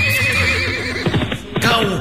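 A horse whinnies loudly, its high, quavering call wavering up and down before breaking into shorter, snorting pulses and a final rising neigh, with no speech.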